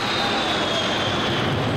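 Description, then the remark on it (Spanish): A loud, steady jet engine roar with a high whining tone that slowly drops in pitch, like an aircraft passing overhead, as the yellow 707 prototype jet, flown by chief test pilot Tex Johnston over water, climbs into the sky and begins to roll; no voices. “Los invitados se vuelven locos cuando Johnston comanda el jet amarillo hacia el cielo y comienza a girar.”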